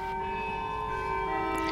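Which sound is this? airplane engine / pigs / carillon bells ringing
carillon bells ringing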